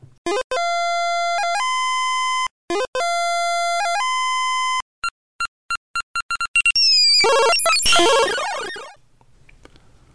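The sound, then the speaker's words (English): Sound effects of the early-1980s arcade game Moon Cresta, which runs on Galaxian hardware: loud repeating electronic tone bursts, rapid staccato beeps, then a chaotic descending swirl of synthesized noise and explosion-like crackle fading away. No voices. “all games in the early 80s, all arcades in the early 80s had this sound ringing around them, coupled with Carnival at ear shattering volumes where I was.”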